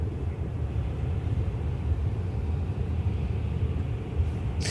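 Steady, muffled low road rumble from inside a moving car travelling from Austria to Hamburg, heard over a call line, continuous and fairly loud throughout, with a brief hiss-like burst at the very end and no one talking.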